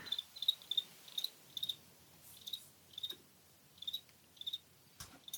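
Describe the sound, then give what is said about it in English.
Crickets chirp loudly in short, repeated bursts around a steady high pitch, about a dozen pulses spaced irregularly over several seconds, with a quiet background and no talking. “Jiminy Crickets”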